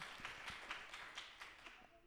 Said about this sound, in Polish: Tak, gromkie brawa.